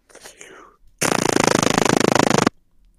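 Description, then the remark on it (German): A voice imitates a machine gun with a rapid, rattling burst of tongue clicks lasting about a second and a half, loud, preceded by a brief soft whisper. “Maschinengewehr? Ja.”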